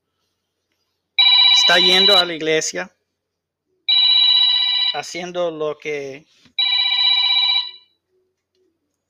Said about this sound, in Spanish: Ah, perdón por el teléfono.